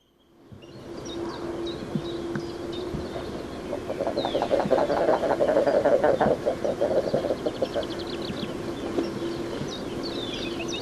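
A flock of common eiders with chicks chattering in a harbour: dense, overlapping burbling calls and thin high peeps, busiest in the middle, over a steady low drone throughout.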